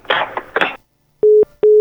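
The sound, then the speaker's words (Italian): A brief burst of voice gives way to a phone's hang-up tone after the other party hangs up on a prank call: two steady, evenly spaced beeps at a single pitch, loud, separated by short silences. “Non ti può chiudere il telefono in faccia!”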